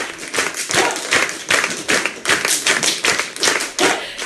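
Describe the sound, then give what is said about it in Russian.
Fast, crisp virtuoso tap dancing with dense, bright heel-and-toe clicks in steady rhythmic bursts, loud and continuous, with a faint hint of clapping mixed in and no voices, as the applause ends the play "Gypsy" by the Paris troupe Romano Atmo at the King René theatre in Avignon. “Каждый вечер на радость зрителям аплодисменты в конце спектакля превращаются в сеанс виртуозной чечетки.”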